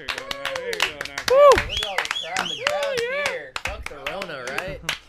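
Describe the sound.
A round of applause: rapid, uneven hand claps crackle steadily for about five seconds while voices talk, laugh and call out loudly over them.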